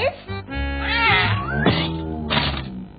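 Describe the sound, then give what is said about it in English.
A cat in a toy box meows in a long, wavering run of insistent cries, its pitch rising and falling for a few seconds, with no one talking over it. “The toy box is for toys, not cats.”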